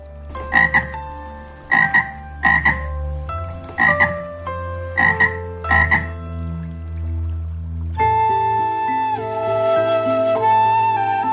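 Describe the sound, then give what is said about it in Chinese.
A frog standing beside a sign by a mud pond croaks loudly six times in a steady rhythm, each a loud, buzzy burst over a low hum, before a sustained tonal backing takes over for the last few seconds. “青蛙又站在牌子旁边，大声吆喝起来。”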